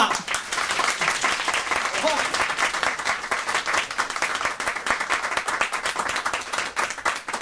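Sustained applause from a large audience at a live show, clapping to vote for which guest they want to sing, a dense, steady wash of many hands clapping at once, loud and continuous throughout with no voices standing out.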